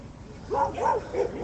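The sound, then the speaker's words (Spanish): Dogs barking in a quick series of about four mid-pitched, fairly loud barks, each a short rising-and-falling yelp, following a brief stretch of low background rumble, on a sunny day with a clear blue sky. “Están los perros hoy.”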